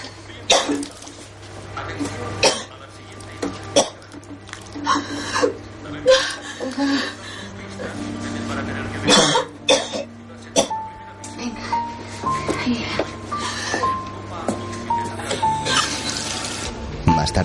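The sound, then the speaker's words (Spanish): A young woman retches and vomits in a series of harsh, wet heaves with splashing and coughing while someone helps her, over a steady low hum and faint background tones. “Poco después Puri la ayuda a vomitar.”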